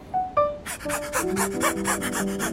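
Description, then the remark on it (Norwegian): A person imitates an ordinary dog panting: a couple of short whiny vocal tones, then a quick, steady series of loud, breathy pants in rhythm. “Først ok, en vanlig hund.”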